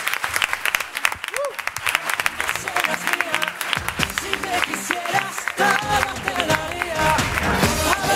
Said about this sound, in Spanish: te despedimos ahora con este fortísimo aplauso. Venga, gracias.